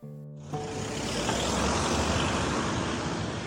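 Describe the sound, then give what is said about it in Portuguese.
Steady street traffic on Avenida Almirante Reis in Lisbon on a spring afternoon: a continuous broad roar of passing cars and engines that swells in after a brief hum and holds at a constant level, with no voices. “É uma tarde de primavera na Avenida Almirante Reis.”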